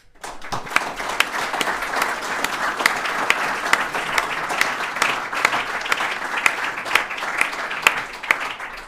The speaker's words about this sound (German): Also vielen Dank und großen Applaus an dieser Stelle auch nochmal an euch.